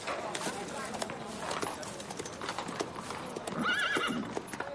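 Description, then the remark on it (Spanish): Horse hooves clip-clop steadily as a captain rides a horse past a carriage amid busy outdoor bustle, with servants unloading carts as a caravan arrives. The horse lets out a short whinny toward the end. Faint voices mingle in the background. “Varios criados trabajan descargando los carros mientras el capitán pasa a caballo cerca del carruaje de la princesa.”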